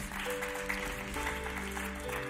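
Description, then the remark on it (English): An audience gives themselves a round of applause, clapping together in a dense, steady burst that holds at an even loudness throughout, with soft sustained musical tones humming underneath. “Come on, give yourselves a, a round of applause as well.”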